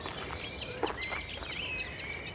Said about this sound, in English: It's a reed warbler singing overhead.